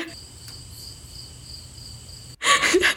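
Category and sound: insect, cricket chirping sound effect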